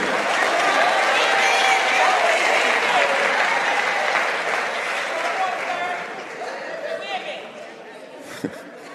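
A crowd breaks into sustained, loud applause with scattered cheers and chatter, holding steady for several seconds before gradually thinning and fading toward the end.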